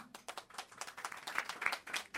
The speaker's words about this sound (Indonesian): Ada yang pernah naik bus dari Jawa ke Bali enggak? Naik bus. Ada tepuk tangan dong kalau ini pernah.